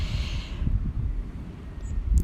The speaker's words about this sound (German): auch wenn du jetzt wahrscheinlich das Meer im Hintergrund hörst und Wahrscheinlich wirst du gleich ein bisschen Wind hier auch hören